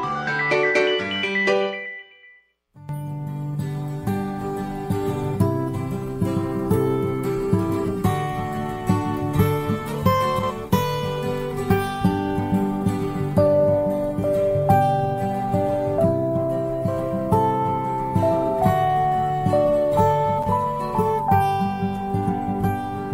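A recorded Taiwanese folk song plays: a short bright, chiming melodic phrase, a brief silence, then a steady, full instrumental arrangement with a bouncy rhythm and no voices.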